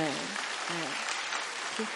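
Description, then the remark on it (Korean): A church audience breaks into steady applause for a man returning to the cell group after 20 years, a dense crackle of many hands clapping that fills the whole clip, with a few voices calling out briefly over it. “오, 박수로.”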